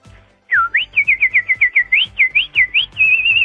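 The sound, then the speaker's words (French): A person whistles an imitation of birdsong: a quick, lively run of swooping chirps that ends in a sustained warbling trill, loud and clear with no talking. “Et on se quitte avec un petit oiseau.”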